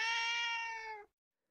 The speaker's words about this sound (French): Même qu'on peut t'aider, miaule le chat.